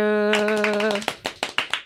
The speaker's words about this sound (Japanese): 思わず拍手しちゃったスタジオの中に拍手が響き当たりましたけど